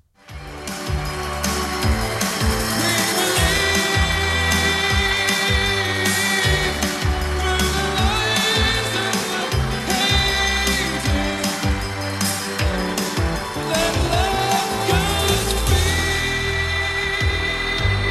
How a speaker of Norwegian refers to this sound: Alle eh, jentene som står og hyler. Det var helt vilt.